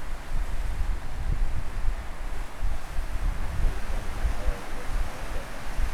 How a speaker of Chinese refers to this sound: 好，如果你戴着耳机的话，你一定从耳机里面感受得到那种海浪一波一波，然后从右边到左边，从左边到右边的感觉。